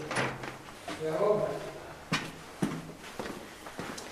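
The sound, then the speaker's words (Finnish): A door is pushed shut, giving a couple of sharp knocks and clunks, with some shuffling movement and a brief murmur of voices beforehand. “Panko mä oven kiinni?”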